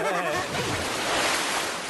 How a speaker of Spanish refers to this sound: Ah, chaval. Eso no es un lago, es el mar.